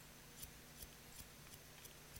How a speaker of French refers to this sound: Et au loin, un bruit. Comme des ciseaux. Comme des comme si on coupait des petites choses.